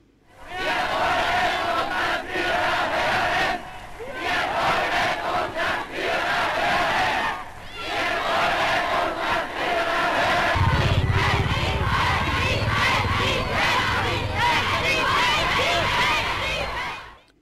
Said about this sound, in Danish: Ja, vi hører nazisternes egne optagelse fra, fra indtagelsen af, af vin, øh, som led i i Tysklands øh, såkaldte Anschluss, magtovertagelsen af, af nabolandet Østrig. Øh, det er masserne foran øh, Hitlers hotel i Wien, som øh, hører føreren tale,